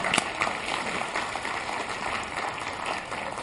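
A crowd applauds with steady, dense clapping that holds at an even, fairly loud level throughout, a continuous crackle of many hands with no voices over it.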